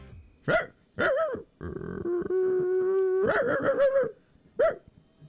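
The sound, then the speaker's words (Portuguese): A military police dog named Royce vocalizes with no one talking: a few sharp barks, a rough growl sliding into a long steady whine, then a burst of yelping barks and one last bark. “Inclusive, a nossa reportagem sempre competente do Bem Bolado conseguiu uma sonora exclusiva com Só o cachorro Roy.”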